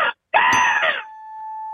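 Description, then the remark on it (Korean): A caller from Seoul, phoning in from a car briefly pulled over, imitates an angry crow's caw: a brief harsh cry, a short pause, then a longer, loud, raspy caw, followed by a faint steady hum. “아, 예, 빨리 하시면 화, 화난 까마귀 소리 들어보겠습니다.”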